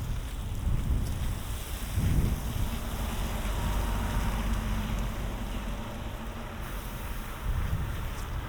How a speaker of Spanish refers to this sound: Nos va a pasar un camión y ahora va a pasar un autobús.